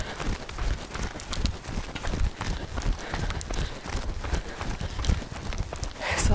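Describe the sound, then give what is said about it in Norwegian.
Quick, steady running footsteps with short strides thud in a continuous rhythm up a hill during an uphill running workout, fairly loud, with a scuffing outdoor texture and no talking. “Det er veldig bra styrketrening for beina dette her, å løpe i motbakke.”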